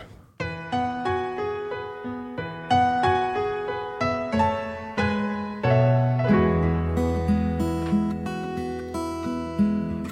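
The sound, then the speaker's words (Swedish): A recorded song plays at full level for about ten seconds, with layered melodic instruments over a steady rhythmic pulse and a fuller, denser arrangement coming in partway through; no one talks over it. “Ja, jag måste nästan spela låten först”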